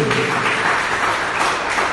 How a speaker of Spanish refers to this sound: denle un aplauso a Cristo Jesús.